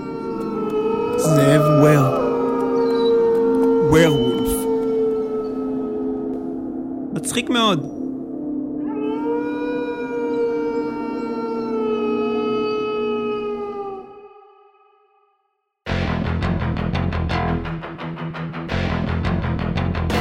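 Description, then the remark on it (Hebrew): A chorus of wolves howls, several long, wavering, overlapping tones rising and falling together for about fifteen seconds before fading out, followed by a burst of loud, noisy commotion. “הם זאבים!”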